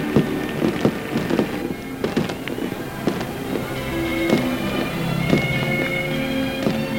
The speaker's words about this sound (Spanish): Y hay fuegos artificiales en el agua del lago de España.